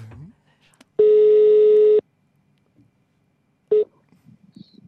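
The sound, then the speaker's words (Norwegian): A steady electronic phone ringback tone sounds for about a second, goes quiet, then starts again briefly before a voice speaks faintly, as an outgoing call to Helge Lurås connects. “I går uh, så tok jeg rett og slett en uh, telefon til Helge Lurås.”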